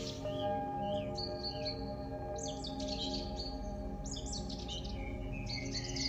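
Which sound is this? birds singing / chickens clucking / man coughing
birds singing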